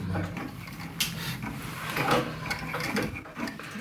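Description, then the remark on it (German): A guitar string being wound with the fingers onto a tuning peg: steady scratchy rubbing with scattered small clicks and creaks over a few seconds, with no voices. “Wickel sie gerade mal mit den Fingern auf, so dass die Seite irgendwann mal so aufliegt.”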